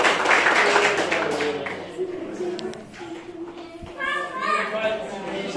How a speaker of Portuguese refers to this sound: Aplauda o Senhor, boa semana.